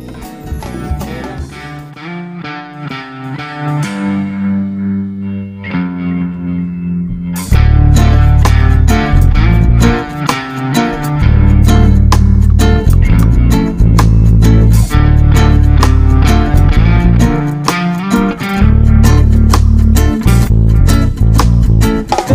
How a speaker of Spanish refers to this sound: Nosotros vamos a hacer una breve pausa musical